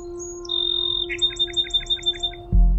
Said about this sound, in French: Ça, c'est un bruant chanteur. Sa présence indique qu'il y a une bonne diversité autour de lui puisqu'il fait partie des espèces parapluies.